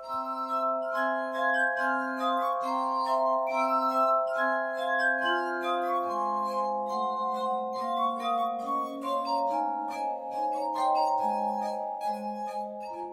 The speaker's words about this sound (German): Und äh, ja, bis die ersten Anrufer hier drin sind, spielen wir Musik von, ja, Glasmusik.